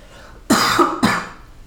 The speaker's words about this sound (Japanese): 咳払いしていいっすかすいません